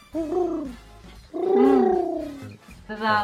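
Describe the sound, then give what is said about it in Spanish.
A human voice imitates doves cooing: three low, breathy, wavering coos with sliding pitch, the middle one longest, fairly loud with short pauses between. “Oyes a las palomas llorar.”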